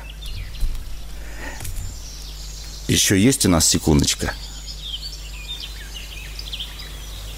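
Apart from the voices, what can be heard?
birds singing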